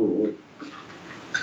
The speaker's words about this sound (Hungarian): Nem, a kutya. Kutyák verekednek.